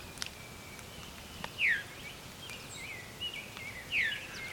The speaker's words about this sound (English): Oh, veer. That's a veery. Veery is a type of thrush, and it's named for this viru call.